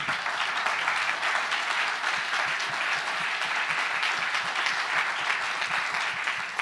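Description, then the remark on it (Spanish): Sustained applause from an audience, a dense, steady wash of many hands clapping at an even loudness for several seconds, with no talking over it. “Si le va a dar un aplauso.”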